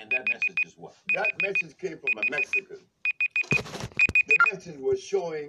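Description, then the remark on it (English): A phone alarm beeps in rapid bursts of four high tones, repeating steadily and loudly over a man talking, with a brief rustle partway through. “Sorry, guys, that was my alarm going off.”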